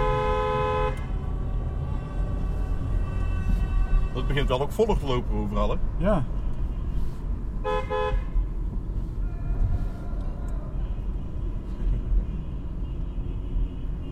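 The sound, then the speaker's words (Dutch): Car horns honk in several bursts, a long steady blare at the start and then clustered, wavering toots, over a continuous low traffic rumble while people chat. “Ik heb gewoon verdomme dat ze veel getoeterd in mijn leven.”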